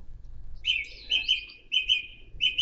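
Birds sing outdoors in bright, repeated chirping phrases of short trills, clear over a low background rumble, with brief pauses between bursts.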